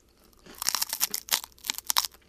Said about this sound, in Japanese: うん海苔だ。海苔ですね。海苔 with せんべいですね、うん。普通だと逆ですよね。ねせんべいに海苔の味だけど。海苔。海苔のせんべい味ですね。